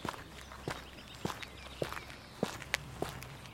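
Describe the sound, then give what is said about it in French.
Footsteps of a bread delivery man walking around to the living quarters at the back of a grocery shop at about 7 a.m., at an unhurried pace, about seven or eight dull thuds with sharp scuffs, spaced roughly evenly over a faint steady hum. Nobody speaks. “Il fait le tour les quartiers personnels de Louis se trouvant à l'arrière du magasin, espérant l'y trouver.”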